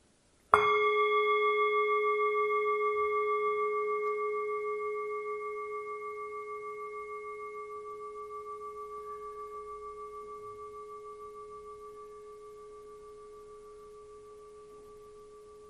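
A single bell strike rings out clearly, then its tone and bright overtones sustain and slowly fade over many seconds in an otherwise quiet space.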